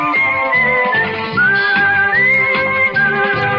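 A bright whistled melody, the whistled solo of a song tied to the Spanish TV show 1, 2, 3 with Mayra Gómez Kemp, glides and holds long notes over a steady musical backing with a pulsing low rhythm, loud and up front, with no one talking.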